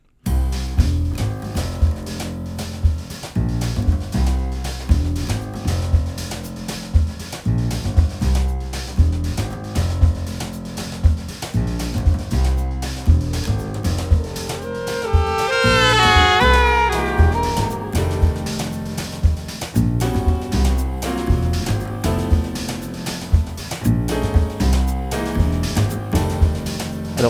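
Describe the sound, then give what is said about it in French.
Saxophones in a busy, rhythmic band piece swell midway into a brief bending, wavering blare, imitating a car horn speeding past with a Doppler pitch drop, the saxes beating a semitone apart with a right-to-left stereo effect, then the groove carries on. “imitent vraiment merveilleusement l'effet le, Doppler, comme si une voiture klaxonnait et passait devant, devant nous à toute allure”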